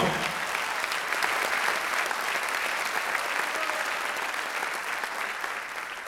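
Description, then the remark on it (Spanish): An audience claps their hands for the Lord in sustained, dense applause, many overlapping claps blending into a steady wash of sound that stays loud throughout, fading only slightly at the end. “Únanse todos y denle fuerte esas palmas al Señor.”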